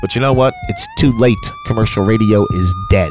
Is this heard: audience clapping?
no